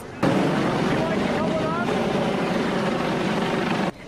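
Loud, steady rotor and engine roar of a US Coast Guard helicopter hoisting a rescue basket carrying a woman and a cat on Sanibel Island, a dense continuous wash of noise that starts abruptly and cuts off just as suddenly near the end.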